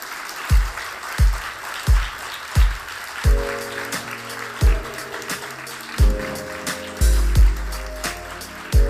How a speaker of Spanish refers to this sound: Les pido un aplauso más fuerte, por favor, para la gente de Santas Listas.